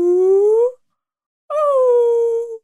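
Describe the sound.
A person imitates whale song while telling a joke about two whales at a bar, with two long, drawn-out vocal moans, the first rising in pitch and the second sliding down, separated by a brief pause, loud.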